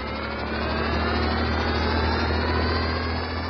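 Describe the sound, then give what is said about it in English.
A steady, droning engine hum runs without a break, low and rumbling with a constant whirring hiss above it, from the jet-prop engines under each small wing of a flying car keeping it aloft. No one speaks. “Those jet props under each small wing certainly keep the ship flying smooth.”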